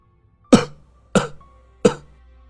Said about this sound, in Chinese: 爷爷自十几岁起就爱好抽烟，抽了七十年，所以时不时的。就要咳上两声。家里的人和左邻右舍都能时不时的听到爷爷的咳嗽声，几十年下来，大家都习惯了。